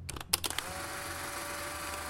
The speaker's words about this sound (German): Oben im Schlafzimmer der Wetzels macht Petra mit ihrer Polaroid-Kamera ein Foto.